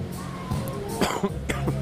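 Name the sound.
coughing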